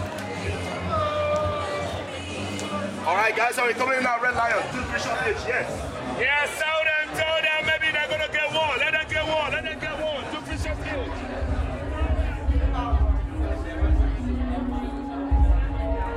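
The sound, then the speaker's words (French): Dense crowd chatter outside a club at the corner of a square, many overlapping voices talking at once, steady and lively, with a deep muffled rumble rising underneath in the second half. “À l'angle d'une place, elle fraye son chemin dans une foule et s'enfonce dans un club.”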